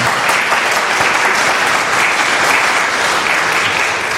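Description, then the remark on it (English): Sustained audience applause, a dense, steady wash of clapping hands that stays loud and even for several seconds with no voices standing out. “I think that's the most applause I've ever heard for someone who didn't eat chips.”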